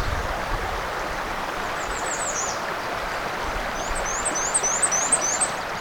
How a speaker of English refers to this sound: There goes a killdeer. haven't had many killdeer here before. I guess there must be one living along the shoreline.